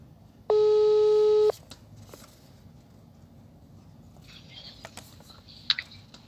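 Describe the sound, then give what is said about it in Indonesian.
A telephone ringback tone sounds once as a call is placed to a person, a loud steady electronic beep lasting about a second, followed by quiet line hiss and a faint chirp near the end. “daripada kita penasaran langsung aja aku telepon orangnya yuk”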